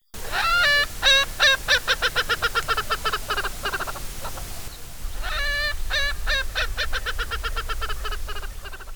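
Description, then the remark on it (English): An Erckel's francolin gives a loud, harsh laughing cackle in two long bouts of rapid, rhythmic notes that speed up and trail off, clear with no talking. “If you hear a loud, laughing cackle, but there's no people around, there's a good chance there's an Erckel's francolin nearby.”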